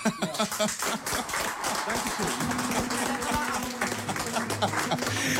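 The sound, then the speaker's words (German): Steady clapping from a group of people fills the whole few seconds, a dense patter of hand claps with some voices murmuring and calling out underneath. “Ich glaube, da können wir mal klatschen.”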